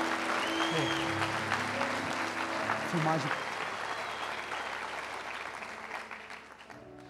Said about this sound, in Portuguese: Dê uma salva de palmas a Jesus, vamos lá.